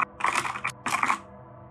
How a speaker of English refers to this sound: Do, uh, do I hear anything or do I just see a light? I think you might hear some clickety clack mechanical keyboard.